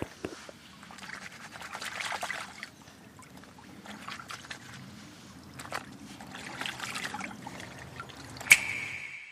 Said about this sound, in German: Jetzt bin ich schon an dem Bach nach 10 Minuten Laufen. So, und hier wird jetzt mal, ja, jetzt wird hier mal sauber gemacht.